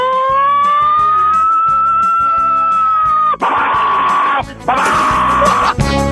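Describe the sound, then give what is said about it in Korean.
A voice on Park Myung-soo's Radio Show loudly imitates an American siren: one long, steady wailing tone, then two rougher, raspier wailing bursts, with no talking. “사이렌 소리. 누구 소방차는 또 틀리거든요. 어, 미국의 미국?”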